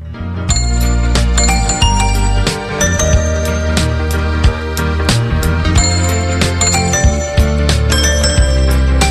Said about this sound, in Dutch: daar zit overduidelijk de toy piano in, wat een, eh, een houten pianootje is. Volgens mij alleen maar witte toetsen, geen zwarte. En daar moet je dan maar eh, op spelen en dan komt een prachtig geluid uit.